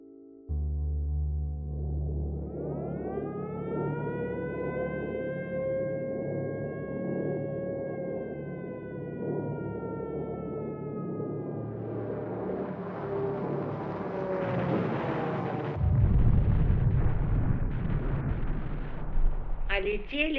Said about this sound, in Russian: Но сейчас есть смысл, думаю, напомнить нашим слушателям о том, что чувствовали люди, оказавшиеся под постоянными бомбовыми ударами немецкой авиации в осенней Москве 1941 года.